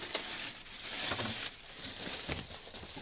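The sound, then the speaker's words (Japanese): Crinkly rustling of a plastic shopping bag from a Seven-Eleven convenience store, a steady run of papery crackles with brief louder bursts, heard on its own without any talking. “カサカサカサカサあ冷蔵庫をバーンってしてしまいましたカサカサカササ今日の今日のっていうか音も全部ねセブンイレブンで買ってきたんです”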